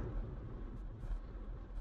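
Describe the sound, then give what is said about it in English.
Steady low rumble of road noise inside a moving car, a constant muffled drone with no voices, fairly quiet and unchanging throughout. “Uh, apologies for a uh, poor sound quality, but we're recording in a car and I don't have a microphone and for other reasons.”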